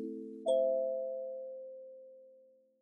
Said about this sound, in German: Aus dem Computer ertönte ein melodisches Klingeln. Jemand hatte ihr eine Nachricht geschickt.